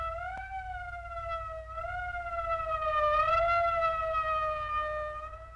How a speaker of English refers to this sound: That's the fifth siren in the last hour. Uh, something's happened down at the cemetery. A lot of police cars and lights.